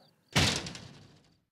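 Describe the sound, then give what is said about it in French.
In a children's story, a little pig slams shut the door of a wooden house with a sharp, solid impact, followed by a short rattling decay that fades within about a second. No voices are heard. “À peine ce dernier avait-il refermé sa porte que le grand méchant loup arriva.”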